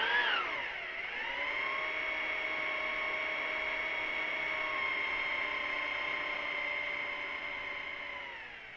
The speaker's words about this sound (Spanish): 8 y 23 de la mañana. Me despierta un taladro.